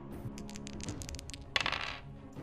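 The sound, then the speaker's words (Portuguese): Dice rolled for an attack with advantage rattle and clatter on a tabletop, a quick patter of small clicks followed by a sharper clack and a brief tumble, fairly loud, with no talking. “Rola um ataque com vantagem aí.”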